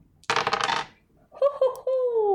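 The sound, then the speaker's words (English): A short burst of dice clattering and rattling across a hard tabletop, fairly loud, landing on a total of 11, then a voice making drawn-out vocal sounds after it settles. “that is another 11 on the dice.”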